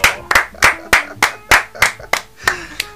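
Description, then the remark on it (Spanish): A comedy-show audience claps to welcome a performer to the stage, in a steady, even rhythm, about ten sharp, loud claps over three seconds, struck together in time rather than as a scattered ovation. No one speaks. “Fuerte el aplauso.”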